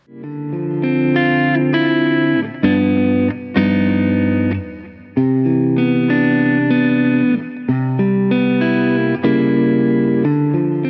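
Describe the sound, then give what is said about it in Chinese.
Distorted electric guitar, recorded through a Coles 4038 ribbon microphone, playing sustained chords with a few sharp chord changes and brief breaks, loud and steady, with a warm, slightly dark tone and no voices. “哎，这是一支履带话筒，由科尔公司生产的四零三八。”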